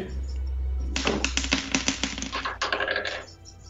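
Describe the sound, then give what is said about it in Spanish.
Dice are rolled again and clatter and rattle in a quick burst of hard clicks and taps lasting about two seconds, with a brief pause and a second flurry of clicks before settling on a 4 and a 3. No one speaks. “Pero bueno, lo tiro otra vez entonces.”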